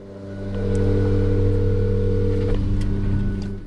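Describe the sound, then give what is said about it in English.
A steady, droning small-engine whine from a leaf blower carried by a man walking by swells in, holds loud and even, then starts to ease off; no one speaks. “so I try calling him from the car, just as a guy with a leaf blower walks by.”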